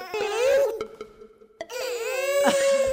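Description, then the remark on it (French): A baby girl lets out two long, drawn-out wailing "ah" cries, loud, separated by a brief pause with a couple of soft clicks. “Elle a, elle a juste dis ah.”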